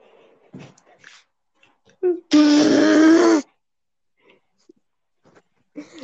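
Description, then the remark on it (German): A power drill, with the speaker's father drilling, runs in a single loud burst of about a second, a whining buzz that starts and stops abruptly, with faint scattered noises and a quiet voice around it. “mein Vater ist am Bohren.”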